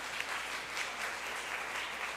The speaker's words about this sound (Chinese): 我们也给我们的约尔敬拜团一个热烈的掌声。